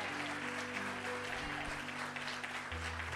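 An audience claps steadily throughout, giving applause to the Lord, a dense wash of applause with a sustained low hum or organ tone beneath it, no voices speaking.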